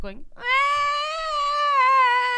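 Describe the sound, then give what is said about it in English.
After a brief spoken word, an adult voice imitates a baby waking in the night and crying: one long, loud, high-pitched wail held steadily for about two seconds with a slight wavering at the end. “Okay, it's finally getting better, but the last few nights she's been waking up like six times a night,”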